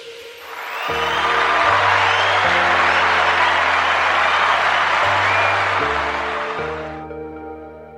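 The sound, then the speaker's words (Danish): Loud, steady applause from a crowd that swells in and runs for several seconds before tapering off, with a bouncy bass-heavy music jingle playing underneath throughout. “Ja, og som klapsalverne indikerer, så skal vi nu have fat i vores traditionsrige skulderklap, som vi skal have uddelt til en person, eller et firma, eller et initiativ, eller et eller andet, som vi synes fortjener at få lidt øh, ros og skulderklap”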